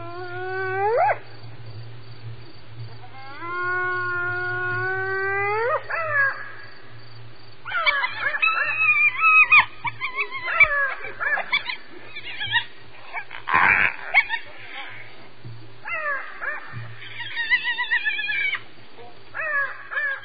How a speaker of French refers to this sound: c'est le bruit des hyènes la nuit